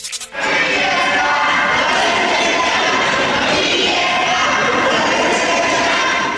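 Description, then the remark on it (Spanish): A large crowd of LGBT groups cheers and applauds continuously in the central courtyard of Congress, celebrating the approval of same-sex marriage while waving rainbow flags, singing and hugging. A loud, dense wall of voices and clapping starts abruptly and stays steady throughout, with shouts rising above the roar. “Grupos de colectivos LGBT ondearon las banderas del arco iris, cantaron, se abrazaron, aplaudieron y se besaron.”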